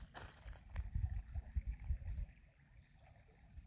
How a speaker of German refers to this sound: Vielleicht kannst du die Melodie des Wassers hören, wie es vor sich her plätschert und seine ureigene, in Wahrheit treibende Melodie singt.